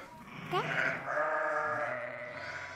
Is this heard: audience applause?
no